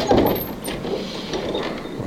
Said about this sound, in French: Attends, on va arriver là, je vais ouvrir la porte.